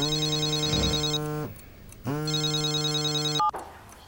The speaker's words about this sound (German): 25. November 2019, 5.30 Uhr. Bei der Generaldirektorin der staatlichen Kunstsammlungen in Dresden klingelt das Telefon.